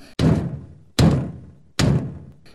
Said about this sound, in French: Quelqu'un frappa à la porte du château.